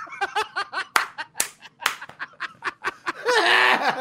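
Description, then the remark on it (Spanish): Bursts of giggling laughter punctuated by a few sharp hand claps, building into a long, high-pitched laughing squeal at the end. “Aquí nos estamos riendo como cuando se ríe Michael Jackson, que eh, Michael, Mike Tyson, que se aplaude”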